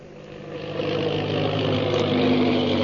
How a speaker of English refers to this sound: The plane bearing the purple triangle insignia roars through the sky.